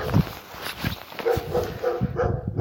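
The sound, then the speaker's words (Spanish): A dog barks over and over in quick, irregular bursts, moderately loud, with no one talking during the barking. “Vaya hombre, ahora se ha puesto un perro plasta.”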